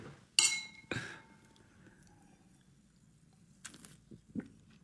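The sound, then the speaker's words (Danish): Glasses clink together in a toast, two bright ringing chimes with a shimmering tail, followed by quieter handling noises and soft clatter. “Jeg tror, vi skal skåle på. Lad os skåle på det. Skål.”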